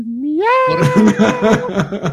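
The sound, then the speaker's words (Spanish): A voice imitates a long cat meow with a rising, drawn-out tone, then breaks into rapid, choppy bursts that sound like laughter. Fairly loud, with no other sounds. “O cuando tenías que hacer el maullido largo, ¿no?”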